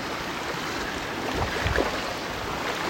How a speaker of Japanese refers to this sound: えー、結構遊んでますで今この水の中の浅瀬をジャブジャブ川に入りながら涼みながら川の中にいますちょっと水の音が聞こえますかね